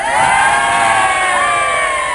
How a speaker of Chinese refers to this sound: 好，但凡刚才鼓掌呐喊的都是流氓，我跟你说。